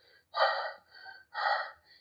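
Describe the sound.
A voice imitates a phone caller's heavy panting: two loud, breathy gasps alternating with softer inhales in a quick, rhythmic pattern, with no words spoken.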